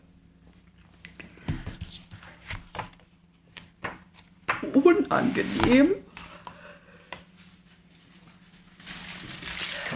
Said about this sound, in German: Oh, ich muss meine Nase putzen. Das ist ja jetzt unangenehm.